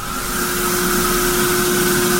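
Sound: spray tan machine spraying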